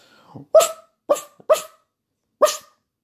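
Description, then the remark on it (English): A person imitates a dog barking, giving four short, loud "woof" sounds with uneven gaps, the last after a longer pause, and no other talking. “And then, uh, yeah, there's just a few um, different sound effects people can make.”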